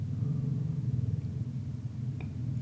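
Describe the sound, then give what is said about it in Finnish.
A neighbour starts a Harley-Davidson motorcycle; the engine rumbles low and steady, with a deep throbbing drone that holds throughout and no one speaking. “Naapuri käynnistää moottoripyörää.”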